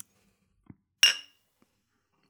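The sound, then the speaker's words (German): A single bright clink of glasses touching in a toast, ringing briefly, preceded by a faint soft knock and followed by near silence. “ja, lass erst anstoßen.”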